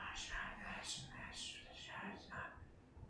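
Soft, continuous whispering murmurs along without pause, several breathy voices overlapping at a low, steady level with no clear words standing out.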